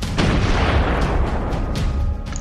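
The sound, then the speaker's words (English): A loud, booming rifle shot whose heavy low rumble fills the whole stretch and fades only slightly toward the end, with no voices present. “Your gun roars.”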